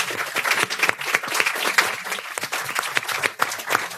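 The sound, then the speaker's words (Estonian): A crowd applauds the participants of a discussion steadily, many hands clapping in a dense, continuous wash of sharp claps with no voices standing out. “tore ja teeme nüüd suure aplausi meie arutelu osalistele, aitäh teile ka”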